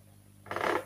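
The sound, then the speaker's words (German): A short creak from a desk chair, one brief squeaky groan lasting under half a second with no voices around it. “Und wenn du das Quietschen hörst, das ist mein Stuhl, der am Schreibtisch quietscht.”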